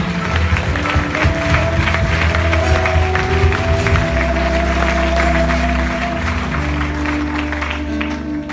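An audience applauds, dense steady clapping that fills the whole stretch at an even, loud level, with low sustained tones humming underneath.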